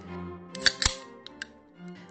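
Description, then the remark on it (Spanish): An aluminium Coca-Cola Light can clicks open: two sharp metallic snaps in quick succession, followed by a couple of fainter ticks, against a quiet background hum. “Esa tipografía llegada del mundo exterior, esos reflejos cromados, ese rojo acero, el clic tan agradablemente familiar cuando la abres”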